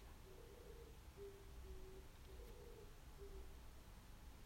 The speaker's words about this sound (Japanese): なんか鳥めっちゃ鳴いてる